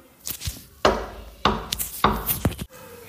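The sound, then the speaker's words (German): Three firm knocks on a wooden door, evenly spaced about half a second apart, each sharp with a short hollow ring, followed by quiet. “Dabei hörten wir ein Klopfen an der Tür.”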